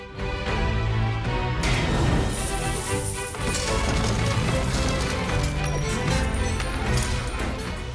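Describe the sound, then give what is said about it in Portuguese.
A dense, continuous layer of film foley from the opening of Novo Mundo: metallic sword clashes and whacks overlapping with the clatter of a rolling coin, loud and busy throughout with no clear pauses. “A moeda vai rolando e você vai ouvindo o som da moeda ao mesmo tempo que, tipo, você tem luta de espadas, tipo, ela cai na água, né?”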